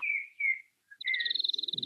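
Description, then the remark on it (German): Birds singing outdoors: two clear whistled phrases, a short pause, then a rapid, evenly pulsed trill of high notes, moderately loud with no one talking. “Ja, ich höre hier die Vögel, ich bin barfuß auf der Wiese.”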